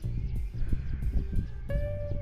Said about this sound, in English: Can you hear the wind rustling?